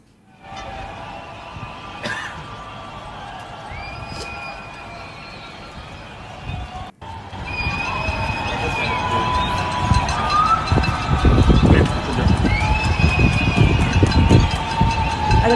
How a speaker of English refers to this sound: going to come out onto, onto Dubai balconies to cheer and praise and support and acknowledge the healthcare workers in Dubai right now. So we'll just play, this is just a very short summary of it if you want to play it,